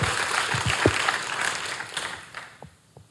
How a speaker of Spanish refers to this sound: Un aplauso para el Señor, es su gracia.